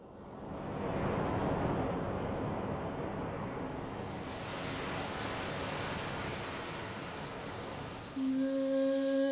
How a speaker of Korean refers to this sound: 딴땅땅땅 이거 좋네요. 처음에 네. 파도 소리도 딱 좋고.